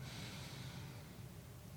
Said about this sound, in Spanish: Y puede ser una respiración, puede ser más que una respiración. Usted puede decidir, pero respire con esa sensación que este día es mío y la vida mía es buena.